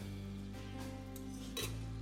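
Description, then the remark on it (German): Food is turned in a pan: a few short metallic scrapes and clinks of a utensil over a steady low hum, with faint sizzling underneath and no talking. “So, das darf jetzt so ein bisschen hier schön brutzeln, das kannst du so ein bisschen wenden immer mal.”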